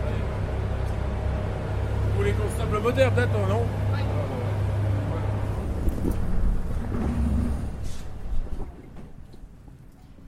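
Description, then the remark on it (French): A disengaged trawler winch lets go as a man releases the brake on its reel and the cable pays out, a heavy mechanical rumble with a whining, wavering tone under the man's voice before it fades. “Là, je vais larguer le frein, et là, le câble peut partir.”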